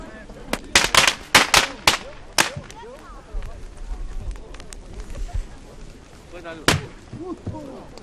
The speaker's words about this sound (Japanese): 耳元で爆竹が。